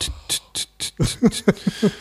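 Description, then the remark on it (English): A voice mimics the keys of an old typewriter or teletype clacking: four breathy, hissing taps followed by five sharper voiced clicks, delivered in a quick, even rhythm of about four per second. “I just think of an old typewriter going,”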